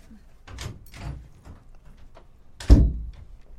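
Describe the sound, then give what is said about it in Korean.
A woman opens a room door and comes out, with a couple of soft handling noises followed by one solid wooden thunk near the end, in an otherwise quiet room without talking. “2분쯤 지났을 때 휴대폰을 들고 방으로 들어갔던 아내가 주뼛거리며 방문을 열고 나왔다.”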